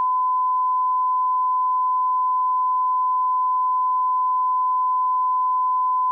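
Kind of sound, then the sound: sound effect, censor bleep tone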